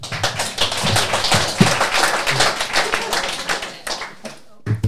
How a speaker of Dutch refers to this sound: applaus.